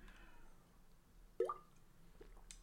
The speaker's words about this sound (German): ich muss mal kurz mal Wasser schlingen